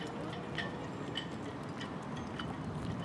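The warning siren of a closing lock bridge sounds as faint, short pulses repeating steadily about twice a second over constant outdoor background noise.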